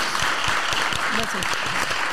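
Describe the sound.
Steady, dense applause from an audience, a loud wash of many hands clapping throughout, with a voice briefly audible beneath it partway through.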